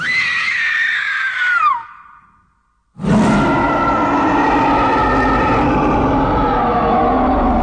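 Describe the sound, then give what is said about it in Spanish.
A woman lets out a loud, high-pitched scream that slides downward, pauses briefly in silence, then screams again, long and piercing, with no talking. She screams as directed for a film camera during a movie shoot. “¡Grita, Ann! ¡Con toda el alma!”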